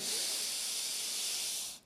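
A long, steady, airy deep inhale, demonstrating a calming breathing technique of filling oneself with air like a balloon, lasting nearly two seconds before cutting off abruptly, with no talking over it.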